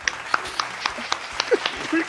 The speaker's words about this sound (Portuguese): Uma salva de palmas para Marcos Mion.